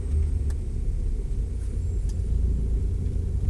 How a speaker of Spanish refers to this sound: Y estamos en el auto.